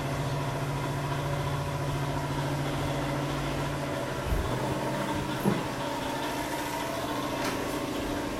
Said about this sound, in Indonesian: ini cukup mengganggu nggak sih suara suara suara mesin itu